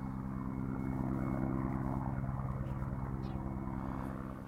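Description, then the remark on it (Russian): A helicopter's deep, throbbing rotor drone fills the scene, loud and steady, then starts to fade slightly near the end as it moves off. No one speaks. “Вертолет улетел.”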